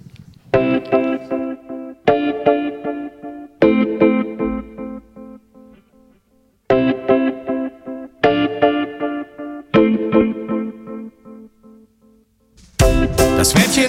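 A rock song played on the radio, with heavily effected, distorted guitar chords struck in repeated bursts that ring out and fade, ending with a sudden loud wash of full band noise. No one talks over it.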